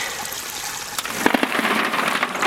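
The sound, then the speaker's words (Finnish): A heavy rush of water pours and splashes as litres of water are poured out onto the garden, at the base of a spruce, to water plants; a steady hiss that swells louder partway through, with a few brief splashy bursts. No voices. “Tässä on litrakaupalla vettä nyt sitten puutarhalle kasteluun saman tien.”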